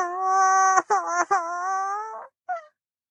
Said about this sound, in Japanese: 孫です。孫の赤ちゃんです。おぎゃーと言いました。